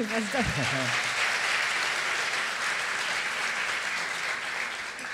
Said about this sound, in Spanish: Y más que todo con esta paisa periodista tan tremenda. ¡Wow! Un aplauso para ella.